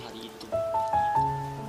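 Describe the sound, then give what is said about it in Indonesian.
Steady rain patters in a constant hiss of falling drops, with a few soft, sustained melodic tones drifting over it. “ada yang hanyut bersama tetesan hujan hari itu.”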